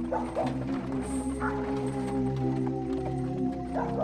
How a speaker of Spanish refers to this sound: Los perros, con su aullido, le dieron un toque sumamente escalofriante a lo que estábamos escuchando, pues no solo los de la casa, casi seguros que los de todo el poblado estaban aullando. Fue algo ensordecedor.